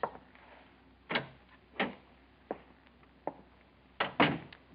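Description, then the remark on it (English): The door of a president's office opens with a series of sharp clunks and rattles from the latch and frame, irregularly spaced over a few seconds, with no voices. “What do you mean by busting into my office? Can't you knock?”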